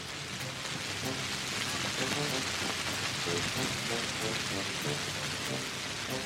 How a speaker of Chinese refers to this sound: 这天一直到大家全部都上床睡觉，雨还是稀里哗啦的打在屋顶上，下得好大哦。